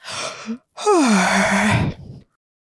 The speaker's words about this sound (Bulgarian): Мама Меца се прозява.